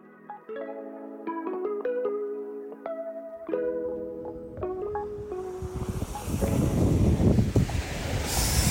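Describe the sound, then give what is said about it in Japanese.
A few seconds of melodic music give way to a broad, rushing roar of ocean waves breaking on Torrance Beach in the evening, loud, swelling over the final three seconds with wind-like hiss. It is 35 degrees, in October. “海岸沿いまで来ました今日はさなんだっけ夕方です”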